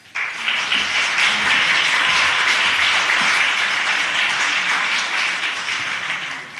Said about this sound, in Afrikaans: Nou dit heb ik nu nog niet gekregen dat dat ehm um, voordat die onderhoud nog begin het, mense so applous gee en dit is vir my eh, 'n aanduiding van net een ding dat niemand van julle wat applous gegee het, het die boek al gelees nie